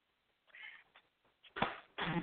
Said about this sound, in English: All right, Shaka is meowing up a storm over here.